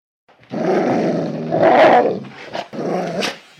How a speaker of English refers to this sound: Don't listen to the dog. He's crazy. He knows what's waiting for you here.